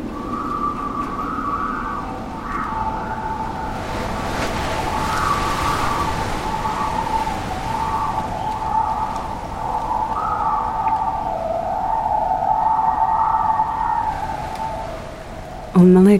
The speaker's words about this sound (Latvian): Bet katrā ziņā tā skaņa ir vējš, kas dzied auklā, kur tādas tur rokās, jo mikrofoni, virsmas mikrofoni piestiprināti pie tās auklas.